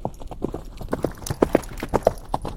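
Horse hooves clip-clop in a quick, uneven galloping rhythm, the beats landing in close pairs and groups, fairly loud, with no voices.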